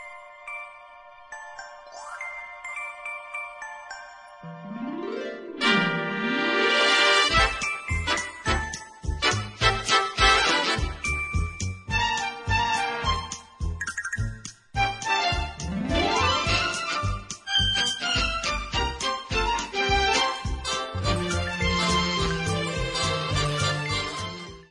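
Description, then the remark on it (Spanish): The theme tune of the TV series Bewitched plays on its own: twinkling high tones open over a sustained bed, then sliding whooshes lead into a bouncy full-band tune with a steady beat and busy melody, no voices. “Yo creo que cuando pongamos la sintonía, el tema de la serie, lo vas a saber seguro.”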